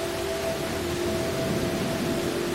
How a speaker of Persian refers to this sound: حالا با تمام وجود در زیر این باران زیبا دست ها رو از هم باز کردید